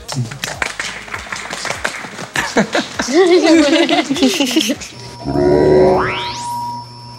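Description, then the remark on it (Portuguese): Audience clapping in quick, irregular sharp claps, with voices whooping and laughing over it, then a loud rising, swooping sound effect cuts in at the end. “Palmas, por favor.”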